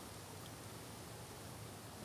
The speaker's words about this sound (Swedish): De närmsta löven här i björken som rasslar.